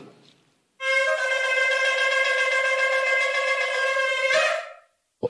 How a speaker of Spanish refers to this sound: Vamos a oír Teruá.